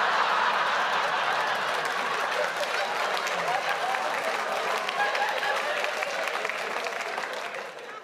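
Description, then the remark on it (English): The audience at Rhys Nicholson's stand-up show, live at the Athenaeum, laughs and claps steadily in a dense, even wash of applause lasting several seconds, holding strong before gradually thinning and fading toward the end, with a few voices mixed in. “If someone next to you just laughed and clapped, you were not the second one.”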